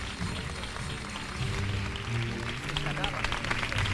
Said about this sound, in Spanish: Aplauso, todo el mundo mirando hacia arriba, hacia ella.